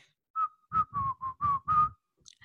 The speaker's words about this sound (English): I didn't get it right. that sounds like a very sad whistler.